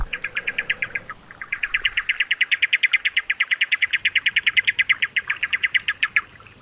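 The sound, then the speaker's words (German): Magellanic steamer duck calls: a long, rapid series of sharp, whistled notes repeated evenly, briefly pausing near the start, then continuing loud and steady with no one talking. “Erwunden viele der Vogel oder sie die Magellan-Dampfschiffente.”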